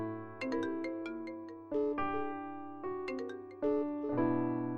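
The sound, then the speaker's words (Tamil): A phone ringtone for an incoming call from someone calling continuously plays a bright, chiming melodic phrase that repeats twice in a steady loop, clear, with no one talking. “த்ரூவ் எனக்கு கண்டினியூஸாக கால் பண்ணிகிட்டே இருந்தான்”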